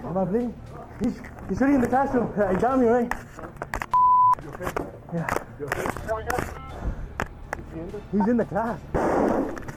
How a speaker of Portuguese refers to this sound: Tá dentro da sala. Olha só, mais tiros partindo do atirador.